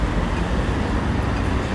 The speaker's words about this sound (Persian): اینجا یکی از شلوغترین چاره هایی که تا حالا توی وین دیدم صدای چراغ قرمز که برای روشندلا طراحی شده صدای ماشینا